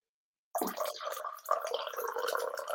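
After a moment of silence, liqueur is poured into a glass, with a steady gurgling splash lasting a couple of seconds. No one speaks.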